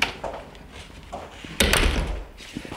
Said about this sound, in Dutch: Dan ga ik met de app even mijn deur openen die telefoon en die deur, die weten dat ze bij elkaar horen. Ah, wat goed. En dan eh, zit er een kastje op de deur, op de plek waar je normaal de sleutel erin steekt.